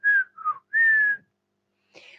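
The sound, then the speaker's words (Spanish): Birdsong imitated by a human whistle: three clear mid-pitched notes, the middle one shorter and slightly lower, then a pause and a faint, breathy higher chirp, with no talking. “Repito, los pájaros se posaban en los árboles y cantaban con dulzura.”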